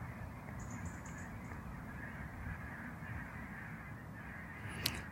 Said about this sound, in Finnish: ja just tällä hetkellä mä kuulen jonkun ihan järjettömän ison, onko toi sorsaparvi vai hanhiparvi vai joku. Onkohan ne tekemässä lähtöä tuolta lähipellolta?